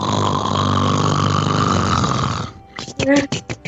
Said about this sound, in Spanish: ¿Quién está roncando?